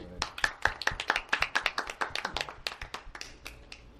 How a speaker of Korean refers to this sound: 아, 어쨌든 아 박수. 아 음악 잘 들었습니다. 네, 박수.